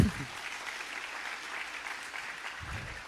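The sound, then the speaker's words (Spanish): A steady burst of audience applause for three people, many hands clapping in a dense, continuous patter at moderate volume throughout, with a brief low murmur near the end. “Un aplauso para todos.”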